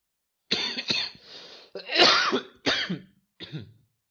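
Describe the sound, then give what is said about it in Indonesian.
A person who has just woken up coughs as a cough suddenly returns, a loud fit of coughing mixed with harsh throat clearing, several rough bursts in quick succession with a short pause before a final cough; no talking. “tiba-tiba gue batuk lagi heran gue kenapa terus gue mikir kan sebelum tidur tuh gue mikir kenapa batuk gue tiba-tiba hilang.”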